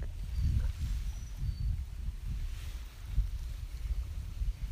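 Steady wind rumbles on the microphone while small waves of Lake Shikaribetsu lap in soft, irregular pulses, with no voices present.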